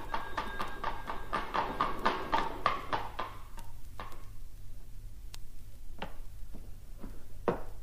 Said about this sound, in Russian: Чу, колокольчик?